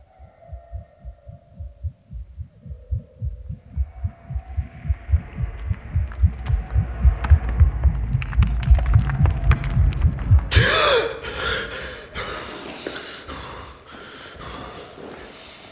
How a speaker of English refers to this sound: The sources of the rapid heartbeat and low cracking noise picked up by D9035's microphone are unknown.